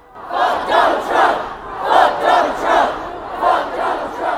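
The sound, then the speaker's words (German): A large crowd of young people at a street demonstration shouts in unison, a rhythmic chant rising and falling in regular bursts about every three-quarters of a second, loud and sustained with many voices blending together. “Sich ordentlich den Frust von der Seele schreien, das hilft schon mal ein bisschen.”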